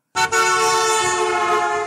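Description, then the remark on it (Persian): A loud car horn blares from a car approaching and passing on a highway, a short toot that runs straight into one long, steady honk lasting nearly two seconds, its pitch higher as the car approaches and lower after it passes, with no voices. “فرض کنید شما وسط راه نشستین دارین تخمه میخورین یه ماشین به شما نزدیک میشه و خب طبیعتا چون شما وسط بزرگ راه نشستین براتون بوغ میزنه”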